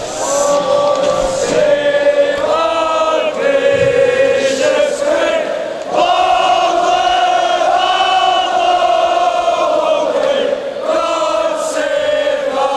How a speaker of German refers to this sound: Ja, das wird dann so gerappt. Aber die haben sich sagen. im Netz gefeiert für diese Performance. Das sei die beste Rangers-Performance ever gewesen ja. von God Save the Queen.